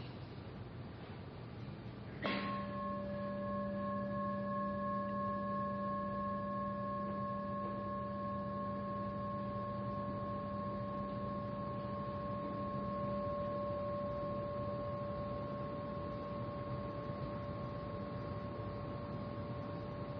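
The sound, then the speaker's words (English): A gong is struck once, then its deep, shimmering tone hangs in the air, ringing steadily and slowly fading over the next eighteen seconds with no voices. “So, um, on the day that I had a talk that involved a gong, I forgot my own gong.”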